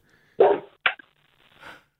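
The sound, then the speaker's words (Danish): Frederik Harhoff's dog lets out two quick barks followed by a softer third, sounding thin and band-limited as heard over a phone call, with no talking. “det lyder som om, det er Frederik Harhoffs hund, vi har fået øh, ringet op til.”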